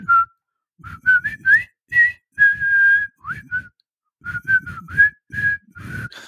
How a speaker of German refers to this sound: ich kann auch nicht so pfeifen